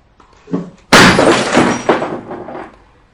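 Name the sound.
glass shattering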